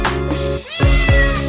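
Two quick, rising meows in a row, like a voice imitating a cat, sounding over a steady, sustained musical backing with a brief dip just before them.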